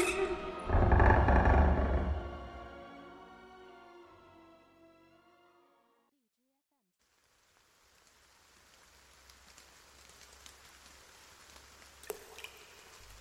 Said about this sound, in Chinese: 下雨了，第一次发觉雨水打在身上这么温暖。